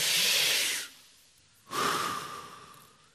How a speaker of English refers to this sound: Everybody breathe in. One, two, three.